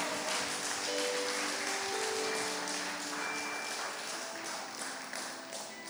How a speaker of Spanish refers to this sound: Amén. Dar un aplauso fuerte al Señor.